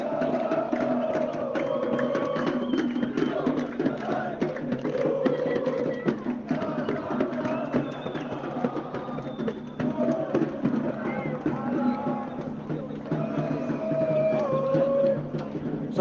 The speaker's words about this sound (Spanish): Lo que se vive, eso sí, cerca a Alcorniche, que es una suerte de eh, bahía en donde se reúnen hinchas sudamericanos, europeos. Son breves pasacalles como el que estás escuchando.